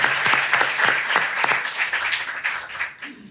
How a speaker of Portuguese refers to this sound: Uma salva de palmas.